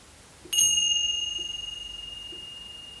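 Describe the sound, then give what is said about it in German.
A single bright metallic strike from a small hand cymbal rings out from a distance, its clear high tones sustaining and slowly fading over several seconds. “Das ist der Klang einer Zimbel.”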